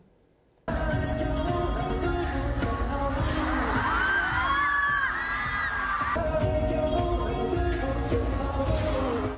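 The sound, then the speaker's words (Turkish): After a brief quiet moment, a heavy crash-like roar bursts in as a giant screen hung above a concert stage in Hong Kong falls onto dancers, followed by a crowd of thousands screaming and shrieking loudly over sustained rumbling noise. “Sahne üzerine asılan dev ekran dansçıların üzerine düştü.”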